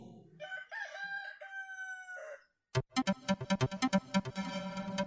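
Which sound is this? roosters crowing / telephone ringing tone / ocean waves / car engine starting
roosters crowing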